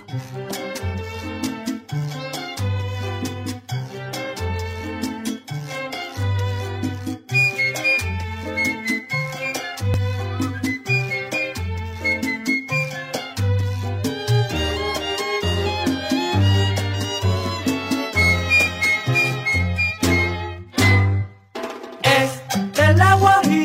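Lively charanga-style guajira son from a 1960s LP plays steadily, with bright melodic lines over a bouncing bass pulse and rhythmic percussion, loud and full throughout with a brief dip near the end.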